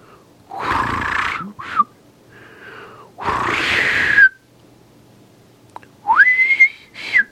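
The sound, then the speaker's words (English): A person whistles an imitation of a sparrow call in short bursts, breathy rushes of air mixed with thin rising and sliding tones, ending in a higher, more tuned chirp. Fairly loud, no talking. “I'm gonna take another running start at that the sparrow.”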